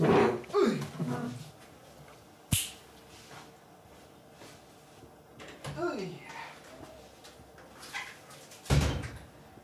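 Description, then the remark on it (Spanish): A door closes with a sharp thud, and a couple of similar bangs follow. Brief vocal sounds come and go between the impacts. “Ay, güey, ahora sí te acepto que cierres la puerta.”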